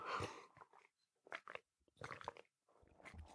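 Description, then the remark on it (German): Someone takes a sip of water: a few short slurping and swallowing noises separated by brief pauses, quiet and wet-sounding, with no talking. “Warte mal einen kurzen Moment, ich muss einen Schluck Wasser trinken.”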